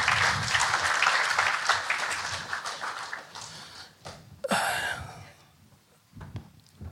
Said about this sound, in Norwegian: Give him a big applause.